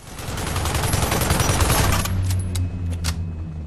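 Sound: burst of gunfire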